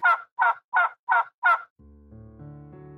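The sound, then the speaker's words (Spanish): A wild turkey gobbles in five quick, evenly spaced bursts, loud, followed by soft sustained musical tones fading in underneath. “El pavo salvaje es un ave nativa de Norteamérica.”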